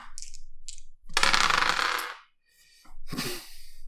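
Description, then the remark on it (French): Dice clatter and tumble across a hard table, a long rattling roll followed by a shorter second rattle, fairly loud with no voices. “J'ai les mauvais dés.”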